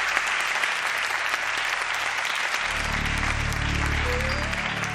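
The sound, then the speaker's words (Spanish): A crowd applauds a guest steadily and loudly during a show at the Teatro Ramos Carrión in Zamora, a dense wash of clapping hands that holds for the whole stretch, joined partway through by a low rumbling swell underneath. “Os pido un aplauso grande para él.”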